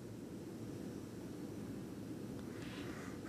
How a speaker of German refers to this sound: im Büro der Staubsauger läuft